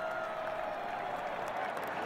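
Steady baseball stadium crowd ambience, a dense wash of many voices murmuring and cheering with faint clapping, holding an even level throughout with no single voice standing out.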